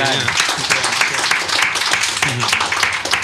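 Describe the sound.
Sustained audience applause for a guest, a dense, steady patter of many hands clapping at once, fairly loud throughout, with voices mixed in beneath the clapping.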